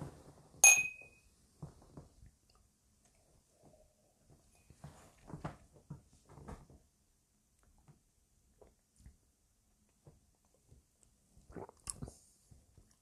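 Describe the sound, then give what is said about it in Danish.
Two glasses clink once in a toast, sharp, with a brief bright ring, followed by quiet sipping, swallowing and small mouth noises in an otherwise hushed setting. “Skål. Skål.”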